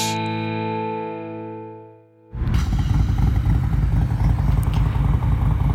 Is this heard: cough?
no